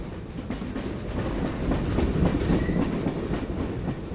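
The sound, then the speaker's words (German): A train rumbles steadily along the rails on a trip to Borlänge, Sweden, with a low continuous roar and faint rhythmic clacking of wheels over track joints. “Ich habe mich in den Zug gesetzt und bin nach Burlänge gefahren.”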